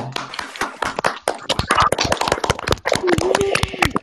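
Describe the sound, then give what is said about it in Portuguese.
Scattered applause from several people in an online meeting, clapping with their microphones open, uneven and slightly compressed, with voices talking and cheering over the clapping throughout. “Palmas de verdade aí, quem quiser abrir o microfone e bater palma para ela.”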